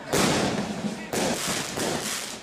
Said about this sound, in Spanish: Euskal Herria acostumbra vivir las fechas navideñas acompañada de los habituales petardos y fuegos artificiales.